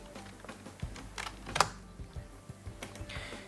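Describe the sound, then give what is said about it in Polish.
A few sharp clicks of computer keys being pressed for the NVDA shortcut Insert 1, irregularly spaced with one louder clack near the middle, over a quiet background hum with no talking. “pomocą klawiaturę NVDA pod skrótem Insert 1.”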